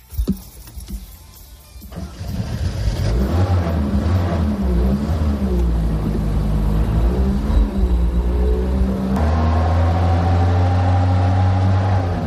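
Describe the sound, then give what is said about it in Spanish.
A SEAT 600 car engine in Torrejón de Ardoz, Madrid, starts up after a brief clunk, then runs loudly, its low rumble rising and falling as it revs for several seconds, with no talking. “he estado a bordo de un SEA 600 y esto me ha dicho.”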